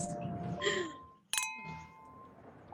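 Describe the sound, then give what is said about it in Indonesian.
Glasses clink together in a toast, a bright sharp chime with a ringing tone that fades slowly, alongside another softer clink earlier amid murmuring background noise. “it's getting lighter and lighter because of our drinks. Cheers dulu”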